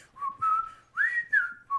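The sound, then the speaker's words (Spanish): Someone whistles a short melodic phrase, with several sustained notes that slide up and down and a brief pause between phrases. No one speaks. “En cambio, empiezas acá a chiflar.”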